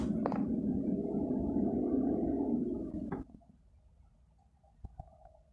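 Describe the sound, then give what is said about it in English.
Wind rushes and howls through a window in a low, rumbling roar for about three seconds, then drops off abruptly, leaving a faint whistling hum and quiet background. “That's the wind, a certain way it's blowing through the window, I think.”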